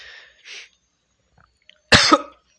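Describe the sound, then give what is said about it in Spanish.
A couple of soft, breathy sputters give way to a loud, harsh burst of coughing after choking on saliva, two quick hacking bursts back to back, with no talking. “Se me fue la saliva, perdón.”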